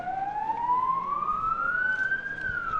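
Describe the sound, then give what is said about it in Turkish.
An ambulance siren wails as the ambulance takes a rescued 11-year-old girl to hospital, in one long, slowly rising tone that levels off near the end, steady and fairly loud over a low rumble of background noise, with no one talking. “Rümeysa için ambulansın sirenleri çalıştı. İlk müdahalesi yapıldı. Eğer duyuyorsanız ambulans sirenleri”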